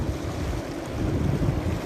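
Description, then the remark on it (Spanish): Steady rushing ocean surf with a low rumbling wash, continuous and fairly loud, blended with wind-like noise and no voices. “Sigue conectándote con las olas del mar que te van acabando de aflojar y aflojar la mente y abrir el tercer ojo.”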